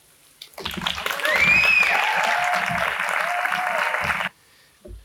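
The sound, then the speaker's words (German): An audience bursts into steady applause for a stage performer, a dense wash of clapping that swells quickly, holds loud for about three seconds, then stops abruptly before the performer reaches the microphone, with a few whistles and cheers rising through it. “Wenn man, bevor man am Mikrofon ist, der Applaus aufhört und dann muss man durch diese Stille zum Mikrofon laufen.”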